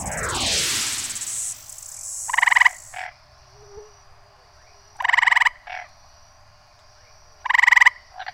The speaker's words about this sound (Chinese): 哦，这是我们第二次听到青蛙叫的声音。上一次呢，是在三只小猪里面听到，你还记得吗？